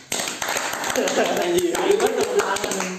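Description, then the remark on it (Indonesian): Rapid, uneven hand clapping from a few people, sharp claps continuing for about three seconds, with voices calling out and chattering over the applause. “kasih tepuk tangan dulu dong”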